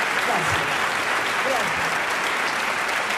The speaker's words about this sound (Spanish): Qué grande este hombre, ¿no? Se quedaron cortos, aplaudo porque es maravilloso.